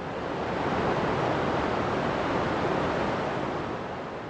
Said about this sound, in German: In einem Video ist zu sehen, wie eine Explosion ein Loch in die gigantische Staumauer reißt. Kurz danach preschen Sedimente und Wasser durch die neue Öffnung. So drängend, so spektakulär, dass es in der Videoaufnahme beinahe unecht wirkt.